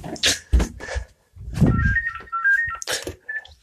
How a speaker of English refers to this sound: In fact, I'm just going to continue this podcast by talking to my mum on the phone. She's ringing.